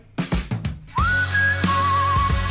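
A carefree whistled melody enters after a brief rhythmic musical intro, holding a steady bright note before sliding lower and wavering gently, clear and upfront over a full instrumental backing.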